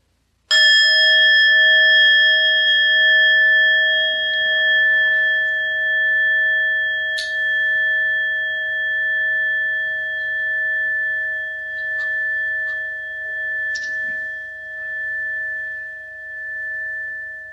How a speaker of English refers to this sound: Uh, if anybody hasn't been here before, I ring the gong once to let us know we're beginning and twice to let us know when it's over.